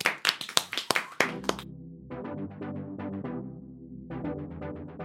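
A brief burst of applause, about ten sharp, close claps over a second and a half, then it stops and upbeat music with a steady beat takes over.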